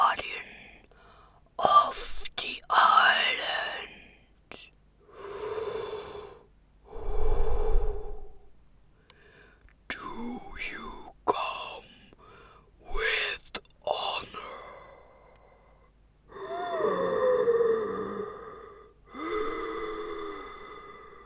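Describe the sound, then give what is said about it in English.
A deep, processed monster voice for Krankor, an ancient Lovecraftian crab monster, growls and moans through a series of drawn-out phrases. It is performed by a woman with the flu and tweaked in post production. Loud, heavy breaths inspired by Darth Vader and snorting gasps come between the phrases, resonant. “Then I played with a couple of variants, and Domin loved the heavy breathing inspired by Darth Vader take best, so he picked that one.”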